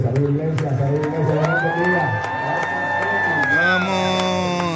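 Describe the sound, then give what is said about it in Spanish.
A large church audience screams and cheers loudly and continuously at a pastor, with one sustained high-pitched shriek rising above the dense mass of voices, like fans at a concert. “Están gritando como si estuvieran en un concierto.”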